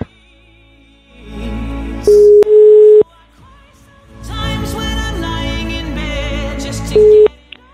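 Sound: telephone ringing tone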